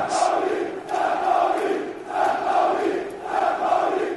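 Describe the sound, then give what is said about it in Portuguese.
A large crowd of football fans in Germany chants "St. Pauli" in steady, rhythmic waves, the two-syllable call repeating about four times, loud and sustained with a roaring backdrop of voices. “Você ouve aí muito claramente, né, a galera gritando são Pauli aqui na nossa Central 3, no nosso Som das Torcidas.”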